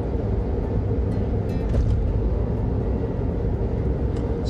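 Steady low rumble of a car cruising at highway speed, with continuous tire and road noise filling the cabin and no one speaking.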